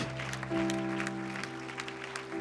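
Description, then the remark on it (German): A crowd claps steadily, a dense wash of overlapping hand claps, with a sustained low organ-like tone humming underneath throughout, applauding the brave people who have just prayed along. “Lasst uns all diesen mutigen Leuten mal einen Applaus geben.”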